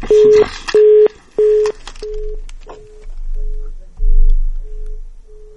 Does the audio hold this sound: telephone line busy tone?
yes